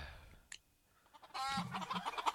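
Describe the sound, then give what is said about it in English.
Chickens cluck and squawk in a busy burst after a brief click and a quiet pause, their calls fairly loud, overlapping for the last second with no one talking. “I'm sorry that you can't hear the chickens, but they're playing chickens now.”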